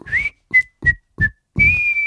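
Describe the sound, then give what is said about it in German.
A person whistles a short tune: a rising note, three quick clipped notes, then a long sustained tone, clear with no one talking. “Was war noch dein Date Noise, was du an dir festgestellt hast? Auf Pfeifen.”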